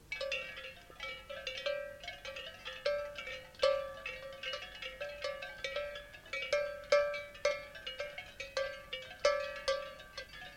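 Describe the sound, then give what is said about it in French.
Many metal bells on a shepherd's herd clank and jangle continuously in an irregular, overlapping rhythm as the herd moves along a road, with no voices. “Autant ils ont de très belles bêtes qu'ils n'ont rien à foutre des cloches.”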